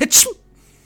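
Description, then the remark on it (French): A single sharp, loud sneeze, with a brief breathy intake followed by an explosive hiss that cuts off quickly into near silence. No talking. “Ah, excusez-moi, j'ai pris froid.”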